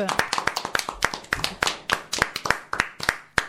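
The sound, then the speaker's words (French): A small audience in the studios of Radio Pisalène, during a live broadcast, applauds a singer: a few people clapping in a loose, uneven patter of sharp, crisp claps, fairly loud and steady for several seconds with no music. “Et bravo, on peut l'applaudir bien fort.”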